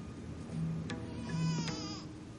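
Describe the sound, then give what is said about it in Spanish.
A baby cries in wavering, strained wails that rise and fall over a couple of seconds, steady in loudness, with no talking. “Al oír el llanto de un bebé, la joven acude a otra habitación y Ben torna su rostro en sorpresa.”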